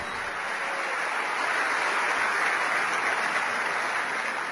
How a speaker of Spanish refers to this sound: Vamos a darle un aplauso, un aplauso gigante a todos ellos.